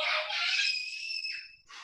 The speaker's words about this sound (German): Ja, das Geschrei im Hintergrund ist nur die Kleine, das ist keine, die hat gerade irgendeine...